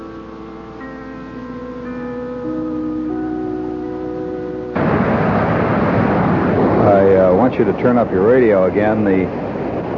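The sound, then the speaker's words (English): A powerful waterfall, Ebner Falls in Alaska, roars in as a dense, steady rush of water about halfway through, following a stretch of soft sustained tones, with a man's voice speaking over the constant noise. “Uh, statistically speaking, anyway, this is the sound of a waterfall, a tremendous, angry, uh, enormously powerful waterfall called the Ebner Falls, E B E N E R, Ebner Falls,”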